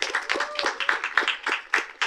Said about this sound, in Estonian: esimese asjana on vaja üks aplaus ära teha, täna on rahvusvaheline noortepäev, teeme ühe suure aplausi